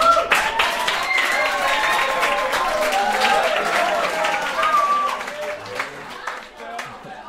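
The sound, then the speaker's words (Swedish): A happy crowd, with police present, breaks into spontaneous applause. Dense and steady clapping with voices and calls mixed in, staying loud for about five seconds before thinning into scattered claps. “Eh, folk är glada och då blir det väl lite spontana applåder och sånt.”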